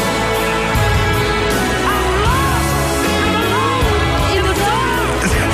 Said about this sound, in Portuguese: Quando ele chega ao fim da música e repete pela enésima vez o refrão, ele, em vez de cantar, grita, desprotegido, os versos.